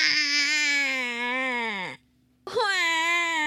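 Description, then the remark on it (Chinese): A voice imitates a baby Tyrannosaurus crying: a long, loud, high wail that drops in pitch at the end, a short silence, then a second wail starting up. “听到宝宝的哭声，慈母龙妈妈再也忍不住了。”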